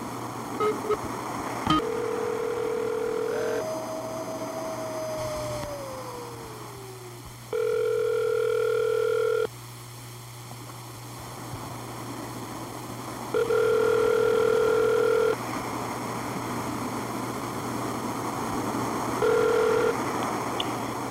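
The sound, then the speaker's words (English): A telephone line plays a series of steady electronic tones as someone dials a phone call: a brief beep, a pitch that slides downward, then longer held tones with pauses between them, over a constant low hum. No one speaks. “Well, I'm going to call you.”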